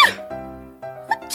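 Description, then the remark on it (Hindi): A voice imitates two sneezes: a sharp, hissy burst, a drawn-out voiced breath in between, then a second sharp burst at the end, both fairly loud. “अभी वो उसके झटके से संभल ही रही थी कि दो छींके और आ गई”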